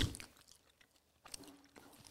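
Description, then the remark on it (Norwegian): Crisp crunching of someone chewing a sugar-topped bun, with a few bursts of bites and grinding separated by quieter pauses, no talking. “Det er som faren min sier Det er ikke nok sukker før det knaser.”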